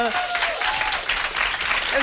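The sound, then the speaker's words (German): A burst of audience applause fills the space, dense and steady clapping from many hands, with a few voices briefly audible underneath. “Deine Songs berühren und man hört dir so gerne zu, weil du sprichst also wirklich Hut ab und dafür noch einen krassen Applaus, wie gut du Deutsch sprichst.”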